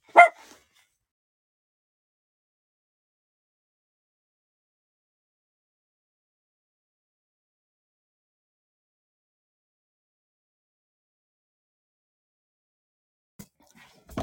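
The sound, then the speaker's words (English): A dog, on alert after a cat knocked something down in the bathroom, gives one sharp, loud bark, then falls silent for a long stretch before a couple of quick barks break out again at the very end. “Um, something just like fell in here, and the dog kind of went nuts.”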